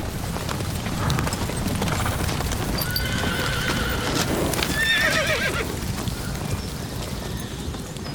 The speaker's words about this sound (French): il ne restait plus qu'à nous faire arriver, nous, des chevaux de course. Tiens, voilà les autres.